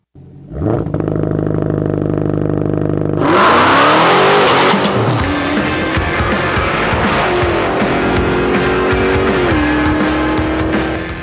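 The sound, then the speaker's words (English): A loud car engine idles with a deep rumble, then roars to life and revs hard, its pitch climbing and dropping through several gear changes amid harsh, squealing noise. “Sounds like we started off in fourth gear on that intro.”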